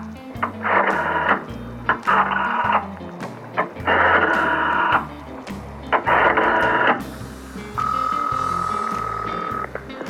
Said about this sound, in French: Je compose un numéro sur un cadran, un numéro qui est distribué aux gens qui veulent appeler Monsieur Nixon.